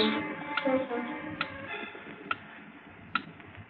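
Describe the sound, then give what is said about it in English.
A time bomb's clock mechanism, planted in a case of rifles aboard a ship, ticks with four sharp, evenly spaced clicks just under a second apart, distinct over a steady low droning, tonal background. “as I pulled the clock mechanism away from the detonator”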